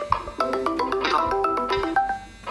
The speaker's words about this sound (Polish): Mnie dzwoni ten sam dzwonek.